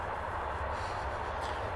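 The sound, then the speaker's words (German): A train passing by, producing a steady, loud rumble with a broad rushing roar that holds even throughout, with no voices present. “Oh, Halt, genau, Zug. es geht um GEMA. Wir machen kurze Zugpause, Moment.”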